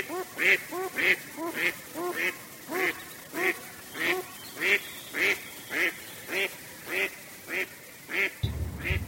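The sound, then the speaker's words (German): Ducks on a countryside farm pond quack in a steady, repeated rhythm, about a dozen loud, nasal calls, with a low rumble of other noise creeping in at the very end. “Ich sehe die Enten.”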